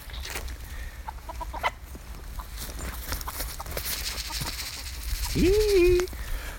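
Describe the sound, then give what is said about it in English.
Hens cluck softly against outdoor background noise with scattered light taps, then one hen gives a louder, drawn-out call near the end. “In fact, all the hens have walked past me and now, now outside, so I'm going to take a walk outside and join them.”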